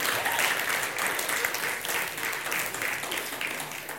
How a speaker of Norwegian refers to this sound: Ja, applaus.